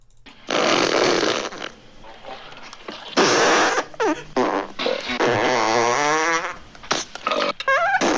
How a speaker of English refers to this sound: you get a nice uh, melange of farts and yes. wet belching. You can just hear yeah. the beans rattling around with bile in the back of someone's throat.